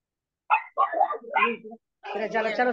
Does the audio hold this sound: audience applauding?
no